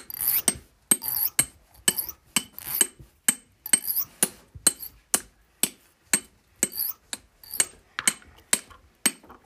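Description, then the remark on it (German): A steady series of sharp taps of a pen striking a glass, played as makeshift music, repeats about twice a second, with soft crinkly rustling filling the gaps between hits. No one speaks. “Und gleichzeitig wieder mit dem Keim rascheln.”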